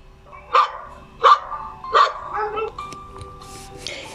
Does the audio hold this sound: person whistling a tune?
no